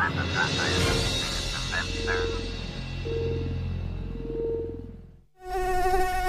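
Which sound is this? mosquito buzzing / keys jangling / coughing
mosquito buzzing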